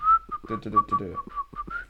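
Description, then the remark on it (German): Someone whistles a wavering melody while another person searches for something, the bright tone sliding gently between notes over two seconds, with low muffled voice-like sounds rumbling beneath it. “Ich pfeife einfach, wenn du suchst.”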